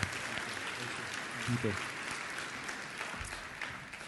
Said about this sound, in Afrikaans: Geef hom ook 'n lekker hande klap toe. Dankie.